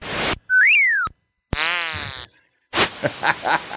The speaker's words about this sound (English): I wanted you to hear this sound. I forgot to play in Winter Games. It's the sound of you flying oh. off on a ski jump, and I, we yeah. think it's great.